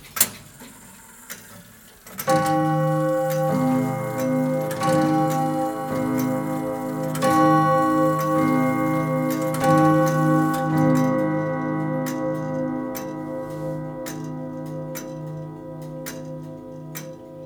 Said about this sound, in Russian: Нас в детстве учили, что часики идут тик-так. Но ну, тик-так это, это для детей они идут так. А для часовщиков часики идут 22-22. Как бы влево и вправо должен быть одинаковый удар. Тогда это называется механизм правильно настроенный.